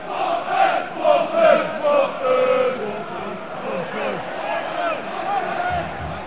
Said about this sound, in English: We're at the Watford Arsenal game. Uh, it's a late kick-off. Everybody's clapping. Don't know why. Everybody's been in the pub. Like, even the kids are drunk. We're here. There's a lot of chanting.